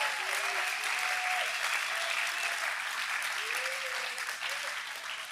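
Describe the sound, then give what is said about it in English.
A crowd claps steadily in a sustained burst of applause for the youth leaders, dense and even throughout, with a few faint cheers or voices rising through it before it starts to taper at the end. “So can we just give them an amazing hand, please?”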